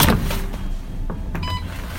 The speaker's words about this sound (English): I'm supposed to clock in in think, four minutes now. So we might as well go do that. Alright. So now I'm punching in.